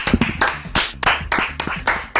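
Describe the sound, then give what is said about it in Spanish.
Steady clapping, about seven or eight sharp, crisp claps in a quick even rhythm, fairly loud, with no voices over it. “Una, esta aplauso para ustedes.”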